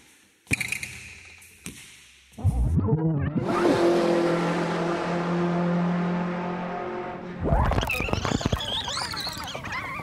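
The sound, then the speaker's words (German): Racing cars accelerating, with a loud, sustained engine roar that climbs and holds for several seconds, then more high revving surges. Brief sharp knocks and thuds come first. “Sprung, Tischtennis, Schwimmen, Basketball, Motorsport.”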